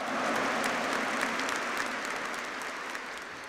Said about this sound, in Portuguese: Então, com a salva de palmas bem bonita para os redentoristas aí. Mais bonito ainda, salva de palmas.